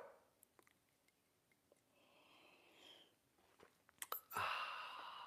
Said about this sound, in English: I like coffee. And join me now for the unparalleled pleasure, the dopamine of the day, the thing that makes everything better. It's called the simultaneous sip. Yeah, and it's going to come to you worldwide right now. Go.